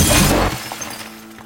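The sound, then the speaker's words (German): A television that had just been showing the news is smashed by a boy with a hammer: one loud, harsh crash of breaking glass, followed by a second of faint scattered tinkling as the shards settle. No one speaks. “der Fernseher, in dem Jonas mit seinem Vater gerade noch die Nachrichten angesehen hat, ist kaputt.”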